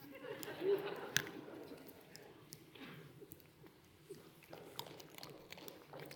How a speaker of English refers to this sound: Let me get a sip real quick before I do this. Just sit and watch me drink, okay?